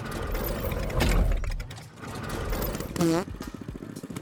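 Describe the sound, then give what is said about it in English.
A loud, souped-up engine sputters and clatters as it is fired up, with a rattling, ratchet-like churn, a heavier burst early on and a brief rising whine before it settles into chugging. “Firing up new and improved engine.”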